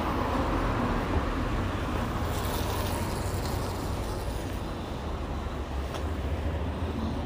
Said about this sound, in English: And as around the corner, I am walking past plane trees, buses going past everywhere people on their lunch breaks from working in the hospital, strolling past.